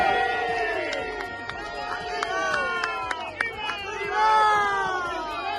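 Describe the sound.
A large crowd of protesting farmers and truckers roars and shouts continuously at night while trying to leave the area around the Metropolitano stadium, jumping fences to block the M-40. Many voices overlap in a loud outdoor clamor, with whistles piercing through and rising yells swelling toward the end.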